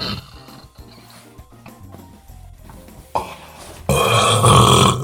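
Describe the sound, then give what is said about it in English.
A long, loud, gravelly burp from a man smoking a cigarette, the smoke coming out as he burps, swells up after a few seconds of quieter gurgling, growing rougher and louder toward the end, with no talking. “and he burps, and the smoke comes out yep, of his.”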